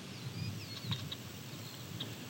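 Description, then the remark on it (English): Faint eastern meadowlark song: a few thin, clear whistled notes slurring up and down, set against a soft outdoor hiss and low rumble, with no voices. “You can hear the eastern meadowlark singing in the background.”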